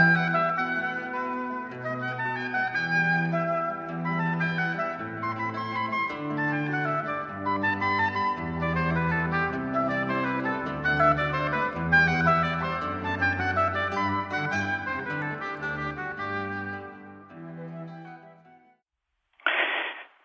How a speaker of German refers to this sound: Bevor wir zum nächsten Moralpsychologen kommen, hören wir nun ein wenig Musik.